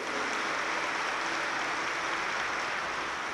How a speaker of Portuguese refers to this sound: Essa filipeta, é uma salva de palmas para Jesus.